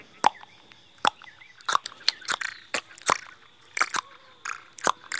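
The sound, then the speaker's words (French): A person makes a series of sharp mouth clicks while approaching gorillas, so the gorillas recognize the people, roughly one every half second to a second, crisp, in an irregular rhythm against a quiet background. “Alors, euh, il nous reconnaît parce que quand on les approche, par exemple, là, on est en train de les approcher et donc je fais une espèce de vocalisation propre à nous, que c'est ce qu'on appelle le claquement.”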